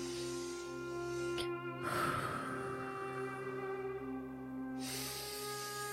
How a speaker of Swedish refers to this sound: Ja, det låter som någon som försöker meditera. Eller då kanske jag inte vill störa egentligen. Det låter inte som någon som har lyckats meditera där ännu